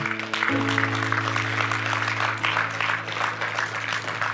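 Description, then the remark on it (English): An audience applauds steadily for several seconds, a dense wash of clapping over a low, sustained organ or keyboard chord that holds underneath throughout. “Yeah, you can clap on that”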